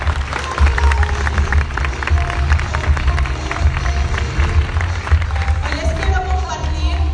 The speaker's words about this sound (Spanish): Es un fuerte aplauso, por favor.